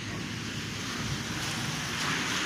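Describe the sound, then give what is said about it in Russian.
Cars driving past outdoors make a steady, continuous roar with a low rumble underneath and a broad hiss on top, holding at an even loudness throughout with no voices. “я тут повышаю голос, потому что тут машинки едут”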